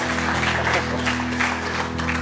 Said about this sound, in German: Wollen wir Gott einen Applaus geben? Come on.